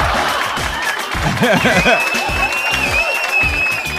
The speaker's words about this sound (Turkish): Şimdi öncelikle Belçikalı operatörleri ameliyattaki başarıları için büyük alkış arkadaşlar. Büyük.